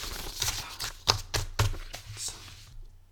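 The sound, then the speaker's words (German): Paper note sheets rustle and crinkle as they're turned over, a handful of short, crisp bursts spread over a few seconds, fading out toward the end. “Ich wende meine Zettel Warte, ich raschle ein bisschen, das ist so ein geiles Geräusch.”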